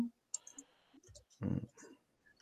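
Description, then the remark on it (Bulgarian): A few sharp computer mouse clicks, fairly quiet, come in an uneven burst alongside a longer scraping rustle, with faint speech-like murmuring in the background. “Да, съжалявам, обаче пък мишката нещо не ми е активна в момента.”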